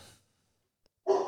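A single sharp, loud dog bark in the background breaks a quiet pause, preceded by a soft breathy sound at the start.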